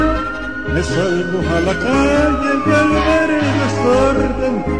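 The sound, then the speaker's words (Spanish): Emergency sirens wail with rising and falling tones over a steady, loud backdrop of deep pulsing low notes, continuous throughout with no talking. “A pocos sirenas y gente que corre me dicen que algo fatal ocurrió”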